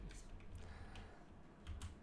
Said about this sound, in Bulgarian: Клавиатура.